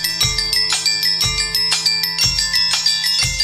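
A metal tune recorded using only bells, small bells, sleigh bells, Tibetan bowls and xylophones: bright, ringing metallic tones struck in a steady, heavy rhythm with deep booming hits on the beat, sustained chimes overlapping throughout, and no voices.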